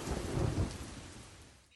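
A deep roll of thunder rumbles over steady, heavy rain, the low growl strongest at first and then easing off while the downpour keeps hissing.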